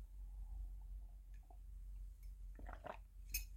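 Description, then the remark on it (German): Quiet sipping from a cup at 8 a.m. in Tenerife, with a soft slurp and swallow, then a faint clink as the cup is set down, over a low, steady hum. “Und ja, ich räusper mich nochmal und trinke nochmal einen Schluck, einen Augenblick.”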